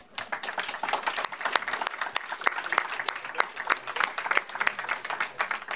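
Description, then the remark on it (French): A crowd applauds steadily for performers who will appear on stage later, many hands clapping in a dense, crackling patter that holds an even loudness throughout without breaks or a clear rhythm. “Applaudissez-les.”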